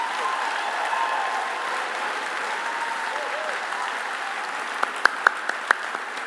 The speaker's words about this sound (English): Let's applaud them as they go back to their seats.